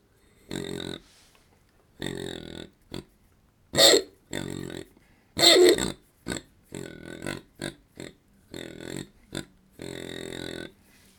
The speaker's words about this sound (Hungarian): A másik oldalról süldő hangokat lehet vele.